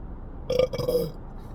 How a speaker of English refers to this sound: Burp.